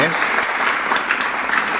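A crowd claps steadily, sent as a virtual message of applause and aired on the radio station Radio Taxi after a singer-songwriter's song: a dense, even wash of many hands with faint scattered peaks, sustained throughout with no pause.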